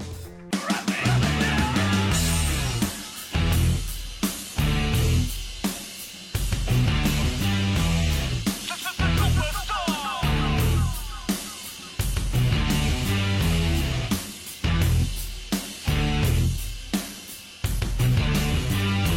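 A loud rock song by a Mexican rock quartet plays throughout, with a full band driven by heavy, steady drums and dense guitars; no one talks over it.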